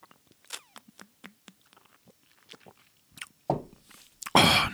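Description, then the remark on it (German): Someone takes a sip from a freshly opened beer as a toast: a run of small wet clicks and swallows, then a louder gulp and a breathy, satisfied exhale at the end. “Ach, normalerweise trinke ich ja nicht beim Podcasten, aber heute ist das mal eine Ausnahme und ähm, ich habe mir jetzt ein schönes Bierchen aufgemacht. Und äh, ja, erstmal Prost da drauf.”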